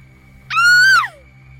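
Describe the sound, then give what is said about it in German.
A single shrill, frightened scream from a startled person, recorded on a portable audio recorder, held for about half a second before breaking off with a falling pitch. It is loud, over a low steady hum. “So würde ich schreien.”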